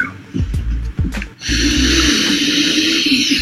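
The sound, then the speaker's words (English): Loud nasal snorting of cocaine: two quick sharp sniffs, then one long, forceful inhale through the nose that rushes on for a couple of seconds. No one speaks. “Oh, we're not snorting coke on the board.”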